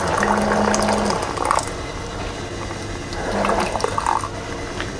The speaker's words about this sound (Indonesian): Oke, saya mengambil gelas. Saya menaruh ambil gula, menaruhkan sedikit saja seperti lalu mengambil air panas oke semoga jadi ASMR